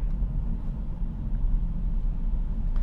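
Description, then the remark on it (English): A steady, low traffic rumble from cars on a road, a continuous wash of engine and tire noise with no single vehicle standing out and no one talking. “But man, I am shocked at how many cars there are out here, and uh, lots of cars.”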